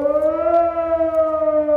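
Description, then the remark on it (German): A loud, sustained civil defense warning siren wails steadily with a slight rise and fall in pitch during an 11 o'clock test alarm in Gladbeck, Bottrop and Gelsenkirchen, heard alone without any voices. “Heute haben in Gladbeck, Bottrop und Gelsenkirchen wieder die Sirenen geheult.”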